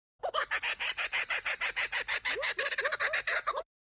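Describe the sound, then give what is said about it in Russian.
A kookaburra's raucous laughing call: a loud, rapid chain of harsh, cackling notes, roughly twenty in quick rhythmic succession, growing a little more frantic toward the end before stopping abruptly. “Надо обязательно выложить кукабару или вставить, как она орет.”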